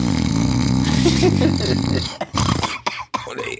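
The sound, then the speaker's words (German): A voice mimics loud snoring: a long, rasping, throaty drone for about two seconds, then broken into a few shorter snorts and breathy gasps. “Und ich habe das Schnarchen durch meine Musik gehört.”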